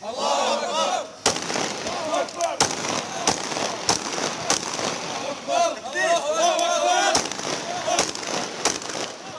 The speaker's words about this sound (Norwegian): mens en gruppe menn roper 'Gud er stor',